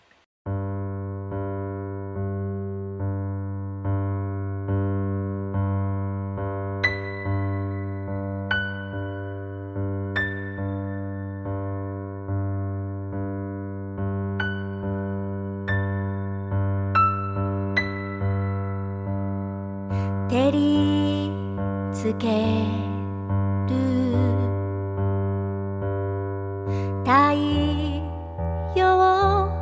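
An instrumental song intro: a steady, sustained drone with sparse melodic notes picked out above it, then sliding, wavering high phrases near the end. Played fairly loud, with no voices.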